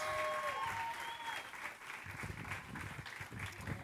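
A crowd breaks into steady applause, dense clapping filling the whole stretch at a fairly even level, with a few whistles piercing through at the start.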